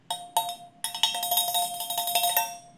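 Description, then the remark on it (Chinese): A thermal food jar being shaken, giving a burst of bright metallic clattering with a bell-like ring. The rapid, uneven rattles carry on for a few seconds with no talking. “好，那我还带了一个闷烧罐，那大家听听看这样。”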